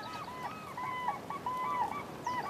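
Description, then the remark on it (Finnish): Cranes trumpeting in overlapping, repeated bugling calls, a steady chorus from a flock with no one talking over it. “Hienosti kurjat.”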